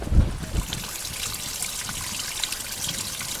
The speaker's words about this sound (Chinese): 流水录不到，录了下水道了。 太惨了， 它下水道里面还有自带混响。